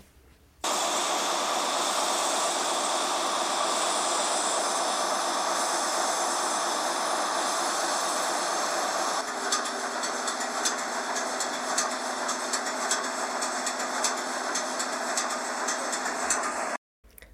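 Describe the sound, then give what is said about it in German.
Loud, steady machinery roar from the engine room of the Cap San Diego, a museum cargo ship, recorded during a voyage from Rendsburg to Hamburg: a dense hissing drone with rhythmic mechanical clatter that shifts in texture about halfway through, then cuts off abruptly. “Hier ein Ton aus der Maschine”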